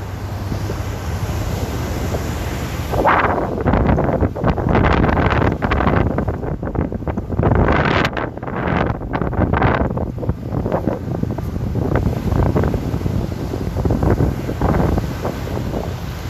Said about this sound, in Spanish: No estoy tan interesado en caminar porque el viento está al lado. Oye, les voy a dejar 10 segundos de solamente escuchar el mar. De nada.